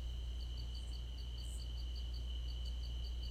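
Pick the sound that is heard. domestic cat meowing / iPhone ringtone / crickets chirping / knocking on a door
crickets chirping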